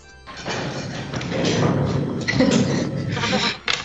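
Rapid, heavy footfalls thud across a floor, growing louder and closer as someone runs toward the listener, with a dull, muffled room rumble throughout.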